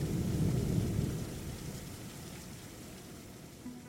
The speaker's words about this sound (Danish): Det lynede og bragede udenfor, så det var en underlig stemning at træde ind i.